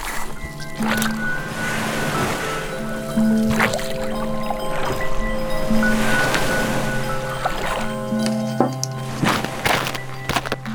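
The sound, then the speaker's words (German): A battered swan-shaped pedal boat, pedalled by a man back to a frozen shore, churns through water. Its splashing swells rhythmically every couple of seconds over a steady mechanical hum and occasional creaks and knocks, with no voices. “Murrend packte der Mann die Lenkstange, trat in die Pedale und führte seinen Schwan voller Blessuren zurück ans erstarrte Ufer.”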